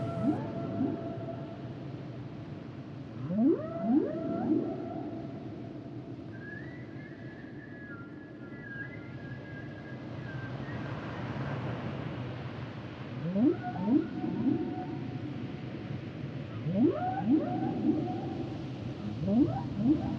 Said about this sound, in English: Reproduction plays a potential role in the songs, but the purpose of humpback whale song is not to attract, but rather to find other whales. And here, the song of the humpback whale.